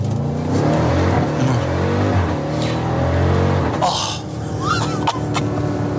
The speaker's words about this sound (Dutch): echt wat bizar lekker deze V8. Klinkt gewoon echt fantastisch. Dit is de Jeep Grand Cherokee Trackhawk. 6,2 liter grote V8, supercharger erop, 707 pk, bijna 900 Nm koppel.